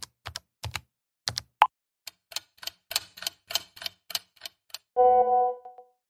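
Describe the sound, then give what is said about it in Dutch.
Someone typing a WhatsApp message to Lange Frans on a phone: a run of quick, irregular, crisp key clicks, followed by a short, bright tonal chime at the end. No one speaks. “Tijd om hem een appje te sturen.”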